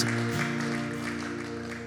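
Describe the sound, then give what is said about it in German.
An audience claps steadily, a dense, even patter of many hands with no single claps standing out, over a sustained low keyboard chord holding beneath it. “Lasst uns einmal einen Applaus geben, einfach weil wir uns freuen über das, was Jesus tut, weil wir uns freuen über jeden, der diese Entscheidung getroffen hat.”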